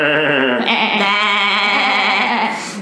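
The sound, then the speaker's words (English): A voice imitates a goat's bleating laugh: one loud, continuous, quavering bleat held for about three seconds, with a shaky, trembling pitch and no talking around it. “she laughs with a goat laugh, just bleeding.”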